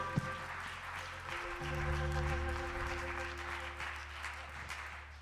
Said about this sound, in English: So praise God. We need to give him a hand. That's really cool. Hallelujah. Come on, clap your hands like you really mean it.